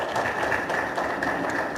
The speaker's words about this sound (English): You can clap if you want.